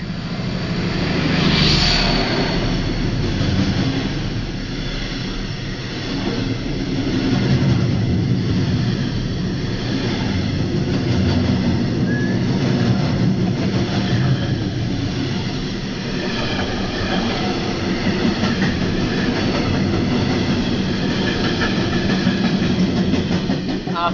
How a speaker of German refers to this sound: Moment, Achtung, Zug!